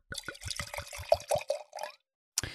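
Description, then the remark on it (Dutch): Red wine glugs and splashes into a glass as it is poured, in a quick run of gurgling pulses for about two seconds, then a short clink or knock after a brief pause, fairly quiet. “we drinken rode wijn. Jeroen ehm, schenkt hem in.”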